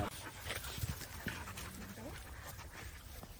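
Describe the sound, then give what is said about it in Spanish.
Dogs and puppies make soft whimpers, whines and panting over a few seconds, fairly quiet against a busy background with faint murmuring voices. “Pero es serio con los cachorros, estos no le hacen nada.”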